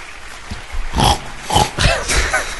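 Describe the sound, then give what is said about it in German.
A quick series of rough, pig-like grunts, about four of them, fairly loud, coming in irregular bursts after a soft lead-in with no talking. “Nee, nee, es war ein Grunzer.”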